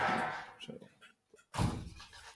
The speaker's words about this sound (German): Man merkt, wir haben es hier mit Bauleuten zu tun. Da ist immer Krach. die Baustelle gegenüber. Und der Frühling kommt, deswegen war das Fenster offen.